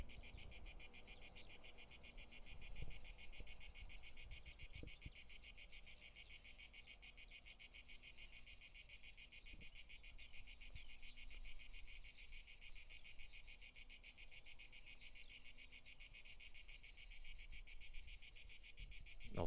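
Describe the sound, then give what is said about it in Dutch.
A cicada chirps in a steady, rapidly pulsing high-pitched buzz that carries on unbroken from start to finish, with a few faint low knocks underneath and no talking. “laat ik afsluiten hier met uh, een poëtisch moment van meneer of mevrouw. Het zal wel meneer zijn, denk ik. Cicade.”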